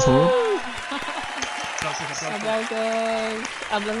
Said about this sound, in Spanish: Aplausos,